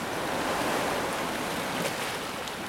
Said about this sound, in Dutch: Deze golven worden veroorzaakt door de wind die op het water blaast en watermoleculen in beweging zet.